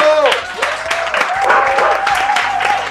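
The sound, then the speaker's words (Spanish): Loud, steady applause for Kika Nieto in a Miniso space fills the whole moment, dense clapping from a small crowd with voices cheering and whooping over it. “Va, aplauso para Kika Nieto.”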